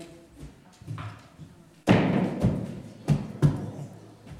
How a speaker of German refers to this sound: Wenn ich diesen Schein zertrete und zerreiße, wie viel ist er wert? Immer noch 100 Euro.